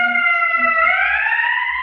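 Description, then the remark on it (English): A fire engine siren wails loudly in Chicago, one sustained tone sliding slowly upward in pitch, with a low rumble of traffic underneath and no one talking. “well, that's that fire engine you were talking about earlier.”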